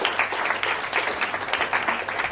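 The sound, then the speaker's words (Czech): Steady applause from an audience welcoming a woman invited onto the stage, dense overlapping claps forming a continuous crackling wash at even loudness throughout, with no pauses or voices standing out. “Pojďme ji přivítat, pojďme ji zatleskat.”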